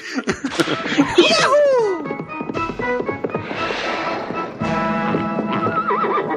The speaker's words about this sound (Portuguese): ah, parece que o chefe está vindo a cavalo para o trabalho.